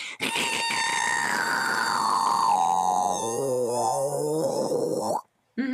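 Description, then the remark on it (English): A sustained, rough guttural voiced sound pushed from the back of the throat, loud, with shifting harmonic tones that dip lower midway before cutting off abruptly; a voiced fricative demonstrated with the friction point moved backwards in the throat. “going backwards in the throat is”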